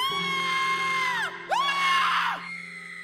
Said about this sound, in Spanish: Sin embargo, cada noche, cuando todo queda tranquilo y silencioso, oigo de nuevo el horroroso chasquido de las patas de las arañas sobre el suelo de cemento y oigo también los desgarradores gritos de mis compañeras de trabajo.